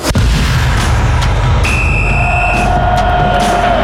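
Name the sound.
radio segment theme jingle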